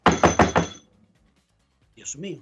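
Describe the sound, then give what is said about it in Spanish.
Four loud, rapid knocks on the door of a house in Orlando in quick, even succession, followed by a brief silence and then a short burst of someone speaking. “Yo estaba, cuando yo recién, recientemente, quizás tenía un año o dos viviendo en Orlando, tocan la puerta y no tocan el timbre, sino la puerta”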